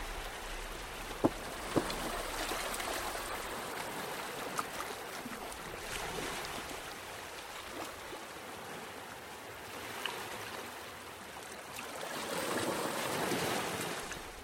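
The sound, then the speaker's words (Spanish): Ocean waves wash steadily onto the shore in a continuous hiss of surf, building to a louder surge near the end, with a few faint clicks early on and no voices. “Y que puedes observar la inmensidad de este mar.”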